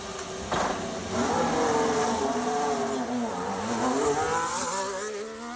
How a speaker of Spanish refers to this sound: Es el sonido del motor del SF24, el Ferrari que va a pilotar Carlos Sainz por última vez antes de dejar su sitio a Luis Hamilton.